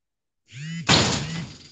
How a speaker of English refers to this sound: Oh, what the heck was that? You, you okay? Oh, yeah, yeah, that was my wife walking out the door.